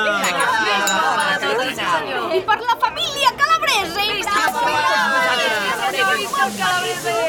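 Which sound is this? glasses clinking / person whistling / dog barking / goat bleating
glasses clinking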